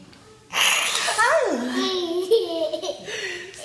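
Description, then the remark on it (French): A small child's voice lets out a loud, breathy roar imitating a lion, its pitch sliding downward, then trailing into softer growly vocalizing. “Tu fais le bruit du lion Tu fais le bruit du lion”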